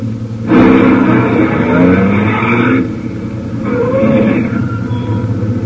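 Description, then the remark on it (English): A truck's heavy engine rumbles and revs as it comes around a curve, its pitch rising then easing as it approaches, with a second surge of engine noise following a brief lull. “In fact, we take the one now coming around the curve.”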